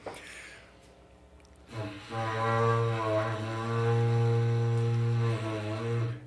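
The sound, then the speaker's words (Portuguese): After a brief quiet moment, a person blows a berrante cattle horn in one long, loud, buzzing blast, holding a steady low note with a slight waver before it ends. “Hum, o berrante começa.”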